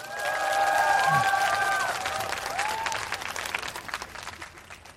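An audience applauds to welcome a musician's live stage performance, dense clapping swelling quickly and then thinning out over several seconds, with a few cheering voices and whistles rising above the claps.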